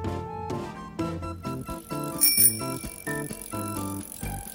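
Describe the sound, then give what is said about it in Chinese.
A bicycle bell gives a quick bright ring midway through as the bicycle is ridden off toward a little mole's house, set against a bouncy, plucked musical accompaniment with steady rhythmic chords and no talking. “呼噜骑着脚踏车往小鼹鼠家出发了。”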